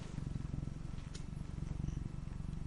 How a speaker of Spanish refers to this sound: Quiero que escuchen el ronroneo de mi gato.